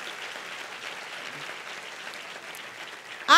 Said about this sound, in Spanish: Si usted quiere aplauda y si no, no.